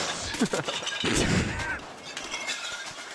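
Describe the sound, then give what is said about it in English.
A loud, chaotic crash of glass bottles breaking, with sharp shattering bursts spread over a couple of seconds amid noisy background clatter. “those are glass, glass bottles.”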